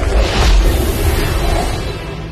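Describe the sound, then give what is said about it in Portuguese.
A loud, rumbling whoosh sound effect of a magical flight to Norway sweeps past with a heavy low-end roar, swelling quickly and then gradually fading away, with no voices present. “é que é pra ser esse barulho? Isso é pra ser um avião?”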